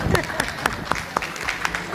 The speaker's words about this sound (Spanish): Muy bien, Paquito. Un aplauso para Paquito.